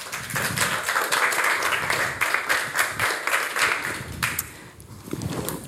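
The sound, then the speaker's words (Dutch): An audience applauds steadily, a dense wash of many hands clapping at a fairly loud level for several seconds, with a few sharper individual claps standing out and the sound thinning slightly near the end. “Geef ze een applaus, lieve mensen.”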